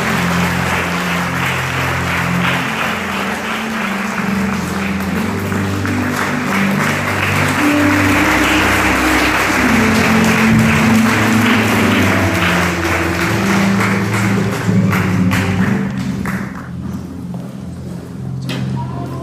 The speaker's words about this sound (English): And let's put our hands together.